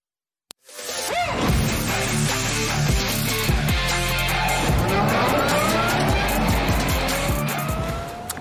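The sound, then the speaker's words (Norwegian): Electric vehicles, a Porsche Taycan GTS car with 598 horsepower and a Zero SRS electric motorcycle, race on a track to test which is fastest: a sharp click, then a loud, continuous rush of rising electric whine, road roar and squealing tires that lasts for several seconds, without talk. “Vi holder oss på en måte i ESG-verden, men nå skal vi snakke bil, for vi i FA har tatt noe litt nytt ut på bane og tester hva som går kjappest på strøm av to- og firehjul.”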